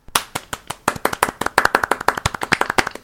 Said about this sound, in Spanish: Pido un aplauso para nosotros mismos.